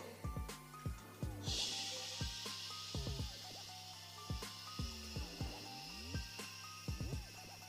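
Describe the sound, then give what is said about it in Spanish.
A steady white noise hiss rises after a second or so and holds evenly throughout, while short gliding tonal blips and pitched sweeps repeatedly cut in over it. “El ruido blanco es lo que le ponen a las guaguas para que se queden dormidas, que es básicamente esto.”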